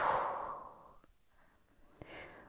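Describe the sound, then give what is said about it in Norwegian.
A slow, breathy exhale during a guided breathing exercise, after the breath is held. It starts strong and fades out over about a second, followed by a faint click and a softer trailing breath. “Og pust ut.”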